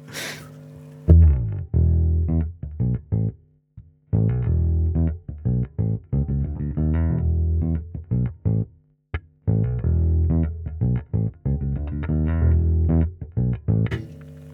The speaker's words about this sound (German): Also wir nehmen den vorderen Pickup wieder, wir drehen den Tonregler auf, ich drehe den Lautstärkeregler auf und jetzt hören wir mal, was passiert ist.